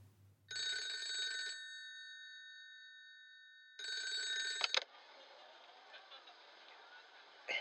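A home telephone bell rings twice, each burst about a second long with a lingering metallic decay, then a clack as the receiver is lifted, followed by faint line hiss: an incoming call from the culprit at 10:51 p.m., on a line fitted with police call-tracing and recording equipment.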